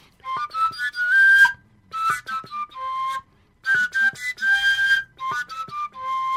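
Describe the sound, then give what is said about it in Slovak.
A koncovka overtone flute plays a lively folk melody in breathy, whistle-like tones, jumping between high harmonics by blowing harder with the same fingering, in short phrases separated by brief pauses, fairly loud with no talking. “Ale to, to sú varianty takzvané, alebo teda obmeny, ktoré vychádzajú aj z toho, že píšťalú koncovku, keď hráš, tak”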